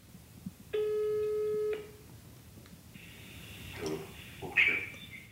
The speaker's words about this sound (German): wählt eine neue Nummer und startet den Anruf. Es klingelt lange.